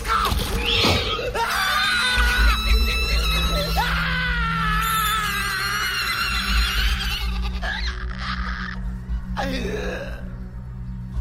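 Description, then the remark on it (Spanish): A man under attack screams loudly and almost without pause as he fires a gun blindly, long strained cries that waver in pitch, with a brief gasp near the start and a short break before the end. “Solo gritaba y disparaba sin ver.”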